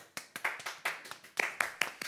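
A short burst of hand clapping for Bart Nijman, about a dozen sharp claps at a quick, slightly uneven pace, moderately loud with no voices.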